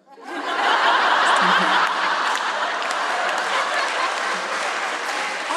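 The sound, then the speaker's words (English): A live audience applauds steadily, a dense wash of many hands clapping that swells quickly and holds for several seconds, with scattered chuckles mixed in, applauding a woman saying she wants to marry for money. “don't think you should be applauding that.”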